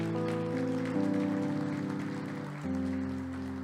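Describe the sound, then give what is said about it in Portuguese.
A church audience applauds the Lord steadily, a dense, rain-like patter of clapping that runs throughout, over sustained keyboard chords that shift partway through. No one speaks. “Aplauda o Senhor.”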